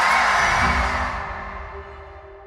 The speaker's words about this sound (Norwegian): dama som nå blir møtt av trampeklapp og intens jubel, hun heter Nikki Haley.